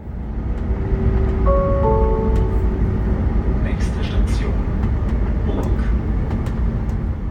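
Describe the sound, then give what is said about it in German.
Steady low rumble inside a moving RE1 regional express train of the Ostdeutsche Eisenbahn in Germany, with a brief sustained tonal whine early on and faint clatters, while voices murmur softly underneath. “Service am Platz im Regionalexpress, das kannten wir noch nicht.”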